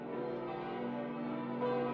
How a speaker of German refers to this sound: Das Mittagsläuten aus 14 Heiligen von Armin Reinsch.